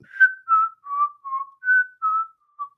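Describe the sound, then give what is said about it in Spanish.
Someone whistles a short melody imitating a magic flute whose music makes rats follow it in a tale: about eight clear notes, each held briefly at a steady mid-high pitch, stepping gently up and down in an even, unhurried rhythm with no talking. “va y hace sonar su flauta mágica y con la música, las ratas van y empiezan a seguirlo.”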